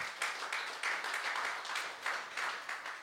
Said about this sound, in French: Est-ce qu'on peut applaudir le sacrifice de Christ